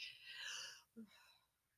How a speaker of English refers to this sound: yeah, oh, gosh. I'm coughing.